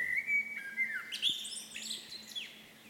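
A common redstart singing: a clear whistled opening note followed by quick, varied twittering phrases, moderately loud, with no voices present.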